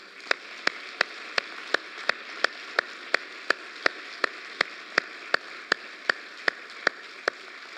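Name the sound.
audience applause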